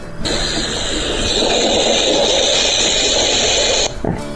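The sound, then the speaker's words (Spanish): A black-tailed rattlesnake's rattle buzzes loudly, a steady dry hiss that holds for about three and a half seconds before cutting off abruptly. “Cuando se me acerca otro depredador, le prevengo con el sonido de mi cascabel.”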